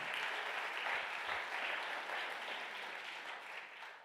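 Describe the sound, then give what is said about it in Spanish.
An audience breaks into loud, sustained applause for papá, a dense wash of many hands clapping at a steady level for about four seconds before easing off slightly at the end. “Denle un aplauso fuerte a papá.”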